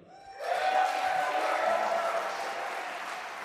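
A talk show audience bursts into sustained applause, loud and dense clapping that swells quickly and holds steady before easing slightly, with a few cheers mixed in.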